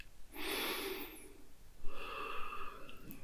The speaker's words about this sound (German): Atme einmal tief ein und aus und lasse den Atem hörbar hmm, in deinem Körper erklingen.